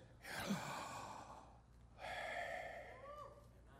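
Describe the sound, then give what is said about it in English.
An audible breath drawn in, as if saying 'YH', followed after a short pause by a longer, airy exhale, as if saying 'WH', like a deliberate sigh, with no talking. “when you would say the sound of God's name, you would not move your jaw, you would not move your lips, you would say the first part breathing in and the second part breathing out.”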